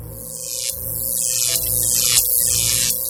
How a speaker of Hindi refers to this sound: तभी एकदम से गेट के बाहर से शॉर्ट सर्किट की आवाज़ आने लगी